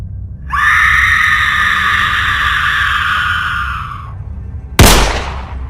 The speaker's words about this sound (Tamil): அப்போ அங்கே மேக்ஸ் கொண்டுட்டதா நினச்ச ஒரு போலீஸ்காரர் இறக்காம தன்னோட துப்பாக்கி மூலமாக மேக்ஸோட நெற்றியில் சுட்டுட்டு லூசியை காப்பாற்றிட்டு அவரும் இறந்துடுறாரு